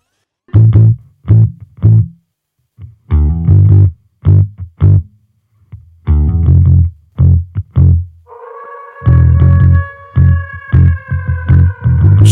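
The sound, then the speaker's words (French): A French rap track plays from a recording: punchy, heavily processed vocal-like bursts over a booming low end, then a sustained layered synth melody joins partway through. Loud throughout. “il a sorti un nouveau son qui euh, vraiment euh, sort de tout ce que j'ai pu écouter un peu récemment”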